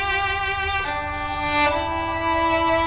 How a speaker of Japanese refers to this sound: バイオリンの音が聞こえてきましたけれどもこれもあれですかイタリアの音ですかこれは、えー、イタリアの北部にクレモナという町があるのですが、えー、そこ、はい、クレモナという町で活躍している日本人バイオリニストの